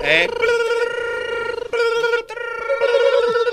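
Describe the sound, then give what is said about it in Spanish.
A telephone ring imitated by voice as a sound effect on a radio show: a loud, sustained warbling tone that carries on for several seconds with a couple of brief breaks. “Ahí están sonando los teléfonos como locos.”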